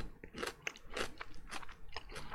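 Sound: crunching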